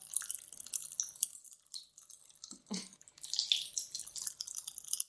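Grape-flavored popping candy crackles and fizzes in a mouth, a steady stream of tiny sharp pops with a brief soft chewing sound midway and no talking.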